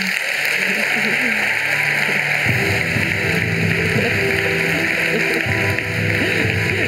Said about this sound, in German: Und dafür verdient er schon mal einen riesen Applaus.